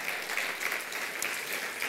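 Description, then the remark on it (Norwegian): A church audience applauds its church-planting work, a dense wash of many hands clapping at an even level throughout, with no voices standing out. “Gi en applaus for menighetsplantning ut ifra denne kirka.”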